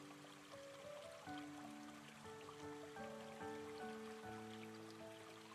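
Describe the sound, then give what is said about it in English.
Soft, steady bubbling of stream water with faint little pops and trickles, continuous and quiet, blended with gentle sustained tones in the background. “The bubbling and softly popping sound of the water.”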